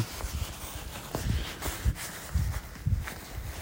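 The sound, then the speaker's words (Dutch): Steady footsteps crunch along outdoors at a regular walking pace during a long walk of about 2.5 hours and 12.6 kilometres, each step a soft low thud with some rustle, moderately quiet, with no talking. “Ik ben nou weer aan het lopen.”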